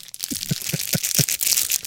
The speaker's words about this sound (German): Jetzt können wir bitte alle dreimal. Eins, zwei, drei, knistern.